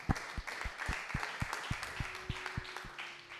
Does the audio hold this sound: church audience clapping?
yes